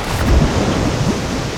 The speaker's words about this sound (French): Elle essaie de tenir debout dans un équilibre de plus en plus instable. Et lorsque la profondeur est inférieure à la hauteur de la vague, la crête bascule vers l'avant, jusqu'à l'instant où elle se brise soudain